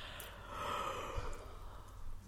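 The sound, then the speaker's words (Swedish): A drawn-out, breathy yawn lasting a couple of seconds, fairly quiet, with a soft airy rise in the middle and no speech, done as a throat-relaxing voice exercise. “Eh, och till exempel om man gäspar, kan du prova?”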